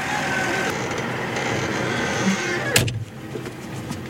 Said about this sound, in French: Bah là on est à bord d'un tracteur avec son plateau et on rentre euh, les boules de lin, donc les fourrières euh, qui ont été enroulées euh, hier.